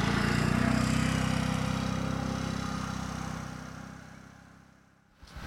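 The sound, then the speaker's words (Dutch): A small moped engine buzzes steadily as someone rides it illegally through a forest bordering a campsite, its droning hum gradually fading away as it rides off, before a brief rustle near the end. “Dat is iemand die eh, volgens mij illegaal met een brommetje rijdt.”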